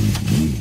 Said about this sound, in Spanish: Cuando una moto de 30 caballos va por la autopista suena así.